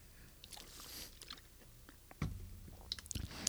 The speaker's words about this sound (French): Pause, pause gorgée d'eau.